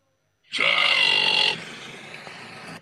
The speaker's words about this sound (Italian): Questo è lui che allena una persona con i rutti.